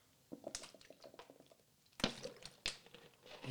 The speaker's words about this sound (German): Ja, äh, lass mich mal ganz kurz einen Schluck Wasser trinken. Trink.